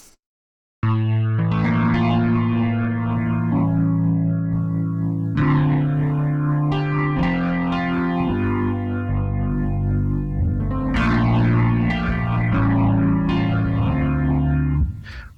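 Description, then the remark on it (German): Sustained chords with a warbling, swirling rotary speaker effect, changing every couple of seconds over a steady low bass line, played continuously and fairly loud with no talking. “Oder wir können stattdessen einen Rotary Speaker nehmen.”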